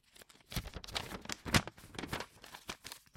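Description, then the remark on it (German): Paper crinkles and rustles in a run of quick, uneven bursts, with one sharper crackle in the middle, like a sheet being unfolded and handled, as paper is taken out of a package. “Dann ist da noch was aus Papier drin.”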